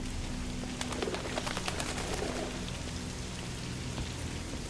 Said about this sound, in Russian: Ну и, естественно, голуби.